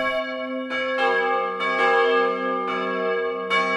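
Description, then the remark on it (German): Church bells ring out on New Year's Eve in overlapping peals, each strike blooming into a rich, sustained metallic hum. Several strong strokes land roughly every half second to second, loud, with no voices. “Silvesterglocken.”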